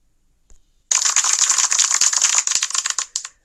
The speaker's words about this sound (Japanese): 拍手ありがとう。